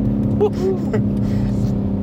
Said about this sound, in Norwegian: Vi kan jo ta unna rett umiddelbart hva dette er for noe. M3 Turing. Enkelt og greit.